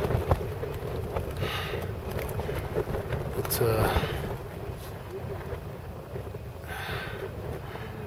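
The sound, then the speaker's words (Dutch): Strong wind of about force 6 or 7 buffets the microphone during an ascent, a constant low roaring rumble with gusty swells. A voice speaks briefly beneath the noise. “heb het gevoel dat we ook verslagen werden door de wind.”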